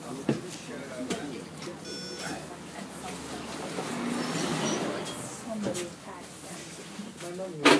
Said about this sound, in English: So now we are getting on the bus.